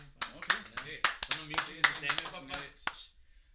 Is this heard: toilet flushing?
no